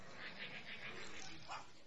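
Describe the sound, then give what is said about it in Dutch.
A crowd of people imitate dogs, producing a continuous mass of overlapping rough growls that rise and fall in waves, with no single voice standing out. “Laat allemaal even je gromgeluid horen. Laat even zien of jullie honden zijn.”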